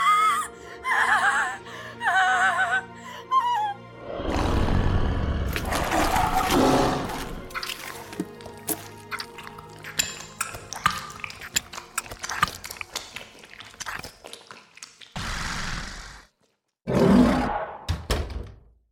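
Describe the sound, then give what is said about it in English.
Wet biting and slurping noises as teeth sink into the exposed artery of a woman's throat and suck hard, sucking and gurgling in bursts with soft thunks and clicks, broken by a brief pause before a final loud wet gulp. No one speaks. “Before the door shut, I was on top of her, ripping out her throat before she could scream any further, and sinking my teeth into the exposed artery. I sucked hard, and all insatiable hunger seemed to begin to subside.”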